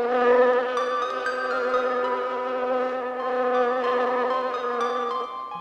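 A mosquito in a house buzzes in a steady, continuous whine with a slightly wavering pitch, holding fairly loud throughout with no voices before it trails off at the very end.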